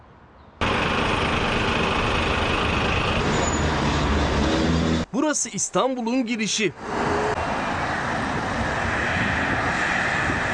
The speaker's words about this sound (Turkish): Dönüş yolculuğunun bakın nasıl böyle trafiğin kilitlendiğinin görüntüsünü izleyeceksiniz.